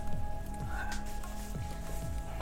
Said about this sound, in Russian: Ну тебя нахер, я вообще пойду налью себе еще выпить.